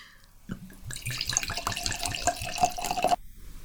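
Wine poured from a bottle into a glass, with a steady gurgling glug and a pitch that rises as the glass fills, lasting a couple of seconds with no voices.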